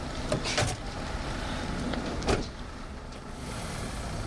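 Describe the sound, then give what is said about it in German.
A line of cars carrying a union protest group sets off together at dawn, heading into the hinterland of Almería, their engines a steady broad rumble, with a few short clunks and bumps rising above the drone. No one speaks. “Eine Schlange von Autos setzt sich in Bewegung.”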